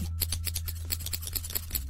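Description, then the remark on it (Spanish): Rapid, rhythmic scissor snips fired off in a quick drumroll-like burst of about a dozen sharp metallic clicks over a low steady hum, with no talking; a scissor drumroll performed to welcome a guest. “Yo pido un redoble de tijeras para nuestra invitada.”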